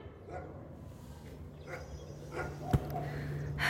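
animal, dog barking

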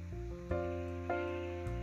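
animal, video game sheep bleating

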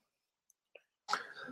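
human body sound, sneeze

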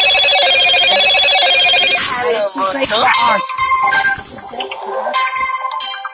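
signal or alarm, telephone ringing

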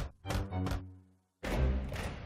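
impact, knocking on a door

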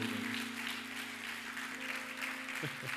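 crowd, audience hand clapping

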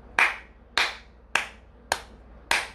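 human body sound, hand clapping

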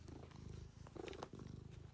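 animal, cat purring

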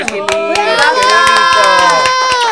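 crowd, applause

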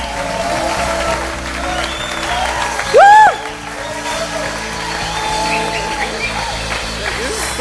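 crowd, audience round of applause

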